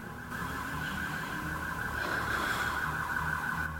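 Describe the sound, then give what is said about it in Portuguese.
An ambulance siren wails steadily from outside, its high tone holding at a constant moderate level over a low rumble of street noise, with no one speaking. “E ambulância ainda.”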